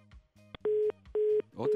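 A dropped phone line gives off a steady beeping tone, three evenly spaced pulses at a moderate level, each about a quarter second long, with faint low murmuring at the start.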